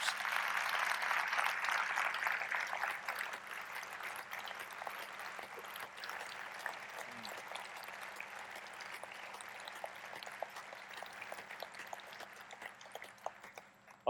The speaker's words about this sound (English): applause seems so trite, but please understand that that, that applause comes from a deep heart of gratitude towards, uh, towards what you have done and provided for us in our country and in our world.